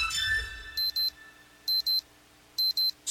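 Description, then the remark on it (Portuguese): An electronic alarm clock sound effect used as a radio time check at 21:02 in Chapecó, with the temperature at 16 degrees: it beeps in three quick pairs of bright, high-pitched tones, evenly spaced and fairly loud, with no talking over them. “Olha pro relógio, 21 e 2.”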